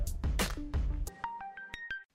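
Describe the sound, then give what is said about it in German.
A burst of noisy, jingle-like sound gives way to a quick series of short electronic beeps at shifting pitches, like a phone ringtone, as a phone call is placed, ending abruptly in silence. “Jetzt telefonieren wir. Der Anruf der Woche.”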